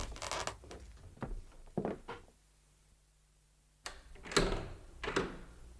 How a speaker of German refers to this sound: Hier gab es mehrere Türen. Justus schlich auf eine zu und drückte die Klinke.